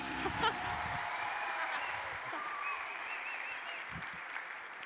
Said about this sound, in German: Give these two a round of applause one more time. Give them a großen Applaus.